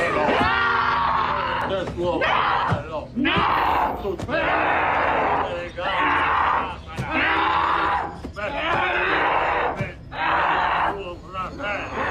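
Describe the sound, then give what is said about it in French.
Anguished screaming and yelling in repeated loud bursts during an exorcism filmed by a documentary team, several voices shouting over one another as sturdy men struggle to hold down a slight woman in a trance, chaotic throughout. “Le son que vous entendez, c'est l'extrait de l'exorcisme qui a été filmé par l'équipe du documentaire.”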